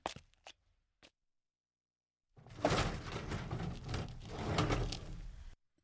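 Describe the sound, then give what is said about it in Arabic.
The door of a house, number 213, opens as a man enters: a couple of sharp latch clicks, a short pause, then about three seconds of loud scraping and rumbling as it swings or slides open, stopping abruptly. “فتح الباب ودخل المنزل”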